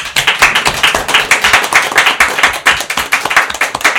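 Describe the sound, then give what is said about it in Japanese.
An audience applauds a guest speaker at the end of a talk, many hands clapping in a dense, continuous patter of sharp claps that stays fairly loud throughout, with no voices on top. “えー、山さんにぜひ盛大な拍手をお願いします。”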